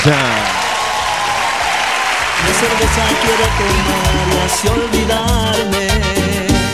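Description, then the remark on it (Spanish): An audience claps and cheers loudly and steadily for the production staff of the show Propuesta Indecente, with a dense wash of applause holding at full volume for several seconds while music or voices carry on beneath it. “Aplauso también para ella.”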